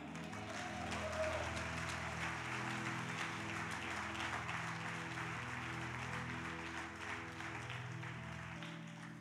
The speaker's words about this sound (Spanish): Aleluya. Diga amén, aplauda.